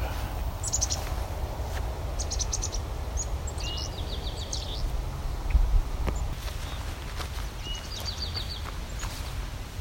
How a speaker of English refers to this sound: another chickadee, an eastern towhee in the backdrop.